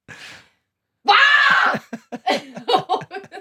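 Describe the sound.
A person lets out a loud, sustained scream lasting under a second, preceded by a faint breathy sound and followed by bursts of laughter.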